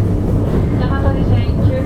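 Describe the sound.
Steady low rumble of a JR West 223 series electric train, a rapid service bound for Osaka, Japan, heard from inside a carriage, continuous and fairly loud throughout, with a faint muffled voice in the background.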